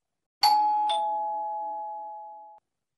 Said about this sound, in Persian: صدای زنگ در بلند شد